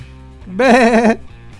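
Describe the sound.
A single loud, quavering goat-like bleat, wavering in pitch for about half a second, stands out clearly over a low background hum.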